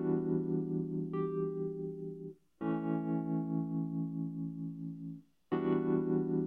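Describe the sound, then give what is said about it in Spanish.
A surround sound effect sweeps from front to back: a loud, sustained buzzing synthetic tone in three long bursts separated by brief silences, with no voices. “Pues ya es bastante convincente, ¿no? Este efecto. digamos adelante atrás.”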